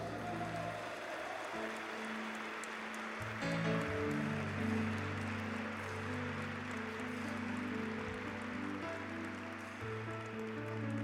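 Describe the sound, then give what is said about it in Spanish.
A church audience gives a sustained burst of applause for its pastors, dense and steady throughout, with a low held organ or keyboard chord droning underneath the clapping. “Dice, dale su fuerte aplauso.”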